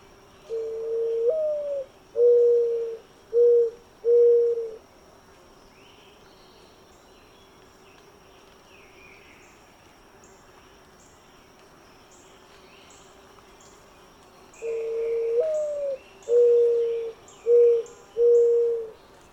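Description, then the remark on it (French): A dove's cooing call sounds twice, each a phrase of five soft, hollow notes, the first rising and the rest steady, with a long pause between phrases. Faint insects and other birds chirp in the background. “Et pour bien l'identifier, voici la voix de l'oiseau à l'honneur aujourd'hui.”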